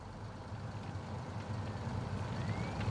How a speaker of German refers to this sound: Kevin McKay steuert seinen Bus vorwärts.